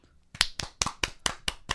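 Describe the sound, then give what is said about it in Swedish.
Brisk hand clapping as applause for the winners, from what sounds like one or two people, about seven sharp claps in a steady rhythm, fairly loud with no talking over it. “Så vi en applåd för dem.”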